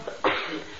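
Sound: sneeze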